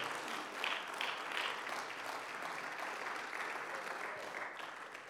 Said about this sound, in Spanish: Denle un fuerte aplauso a la gloria del Rey.